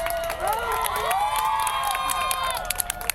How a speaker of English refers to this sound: After five tense hours, he began releasing the hostages one at a time to cheers from spectators gathered outside.